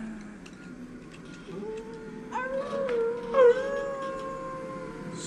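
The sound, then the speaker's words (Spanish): Long, sustained, low and mournful howls of dogs rise and overlap from down in a hidden valley under moonlight, several voices joining in, with drawn-out wavering tones over a soft background hiss and no talking. “Se fue haciendo audible mientras las motas flotantes adoptaban nuevas formas con los aullidos y danzaban a la luz de la luna.”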